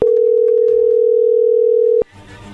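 A telephone line with a steady, unbroken dial tone at one mid pitch, loud and constant for about two seconds before cutting off abruptly into soft line hiss and clatter.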